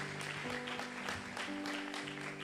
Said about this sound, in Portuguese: Aplaude a Deus por isso.